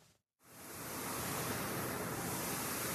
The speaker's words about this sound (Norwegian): Nei, dette er ikke jazz, men lyden av en feiemaskin, nærmere bestemt. Feiemaskin ved Bryn.